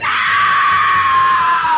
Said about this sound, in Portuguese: Esse foi o meu grito de desespero